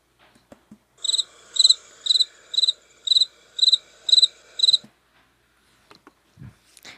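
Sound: cricket chirping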